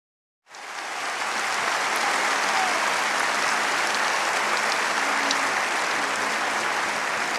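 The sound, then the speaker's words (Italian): Sustained applause from a sizable crowd for ADMR Rock Radio starts abruptly and holds at a steady, dense level throughout, a continuous wash of clapping with no voices standing out. “applausi per ADMR Rock Radio.”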